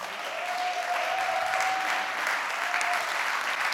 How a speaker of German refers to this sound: Genau, sie sind auf dem Weg, also darf noch gerne weitergeklatscht werden.